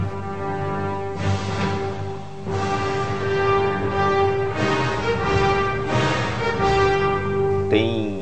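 A loud orchestral march from the Star Wars films plays steadily, with sustained brass-like tones and heavy accented hits landing every second or two, building a menacing, regular rhythm without any voices.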